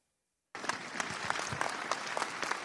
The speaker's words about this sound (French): Des applaudissements pour un rassemblement chargé en émotions.